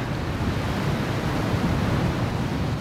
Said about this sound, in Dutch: Klimmen duin op, zonder scherm, want we hebben aflandige wind.